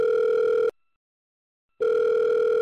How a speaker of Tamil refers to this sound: so இப்படி அவங்க போயிட்டு இருக்கிறப்போ வந்து ஜானுக்கு வந்து ஒரு ஃபோன் வருது